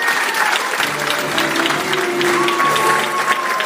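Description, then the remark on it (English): Steady, dense applause from a large audience at an awards ceremony, for the final announcement of the self nomination categories, the Rising Star category, fills the whole stretch, a continuous patter of many hands clapping at an even loudness, with faint tonal hum and crowd murmur underneath. “what you can hear in the background there is the applause for the final announcement of the self nomination categories, which is this year's Rising Star category.”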